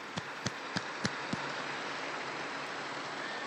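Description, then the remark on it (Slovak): A crowd applauds the Ulma family of Poland in a dense, steady wash of clapping with no voices, as five louder, evenly spaced claps ring out over the first second and a half. “Jeden veľký potlesk tejto rodine Ulmovcov z Polska.”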